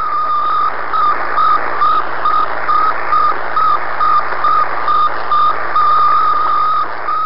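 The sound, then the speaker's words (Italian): The radio beacon of a satellite, an 83.6 kg metal sphere orbiting Earth, beeps in a steady, rapid series of short tones, about three per second, over a constant layer of radio static and hum, with no voices present. “un nome che significa compagno di viaggio e che tutti gli appassionati radioamatori del mondo potevano ascoltare mentre descriveva le sue 1400 orbite ellittiche intorno al nostro pianeta emettendo un suono tenerissimo, faceva bip bip bip”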